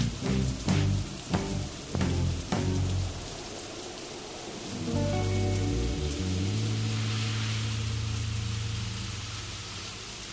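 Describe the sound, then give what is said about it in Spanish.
Steady rain patters on a hard surface, with a few heavier thumps early on. A low, sustained hum swells in beneath the rain midway and continues to the end. “Con el rostro en los vidrios, mientras el auto se hundía, fuimos parte de la lluvia.”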